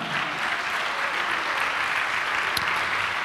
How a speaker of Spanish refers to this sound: Dale un aplauso a Jesús por eso, amado hermano.